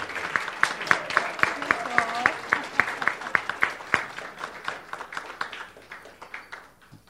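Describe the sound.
An audience claps steadily for several seconds, dense overlapping hand claps that gradually thin out and fade toward the end, with faint murmuring voices underneath.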